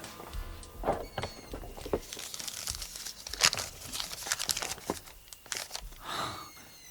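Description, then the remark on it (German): A thin rolled-up paper, found behind a hidden flap in a Harlequin figure's costume, crinkles and rustles as it is unrolled, a run of light, crisp crackles and soft scrapes with a few sharper snaps over several seconds, no voices. “Dahinter befand sich ein kleiner Schlüssel und ein dünnes, zusammengerolltes Papier.”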